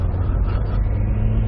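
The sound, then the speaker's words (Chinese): An SUV's 2.7-litre engine labors under load while climbing a gravel mountain road, in a steady, low, rumbling drone with a faint tonal hum. It stays evenly loud for the whole moment, with no voices. “啊，当爬坡的时候，你能觉得这2.7升发动机底气是不足，越到上边你看，干踩不走。”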